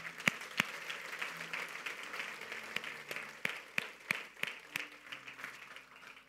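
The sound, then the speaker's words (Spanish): A church audience applauds God during a sermon, steadily throughout, a dense wash of many hands clapping with a few sharper, louder claps standing out at irregular moments. “¿Qué tal si le damos un aplauso a nuestro buen Dios?”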